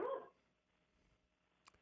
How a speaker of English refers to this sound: I think your dog wants to get involved in this conversation.